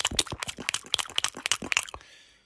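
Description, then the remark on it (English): A voice imitates a wet, sloppy Arby's roast beef with cheese sandwich with a quick run of squelching mouth clicks and smacks for about two seconds, then trails off into a soft hiss. “This guy looks and sounds like an Arby's roast beef with cheese, which I think would sound like this.”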